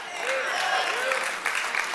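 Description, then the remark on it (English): An audience applauding at a church service: steady, dense clapping from many hands that holds at an even level throughout, with a few faint tonal voices or cheers rising briefly above it. “and we respond and we clap.”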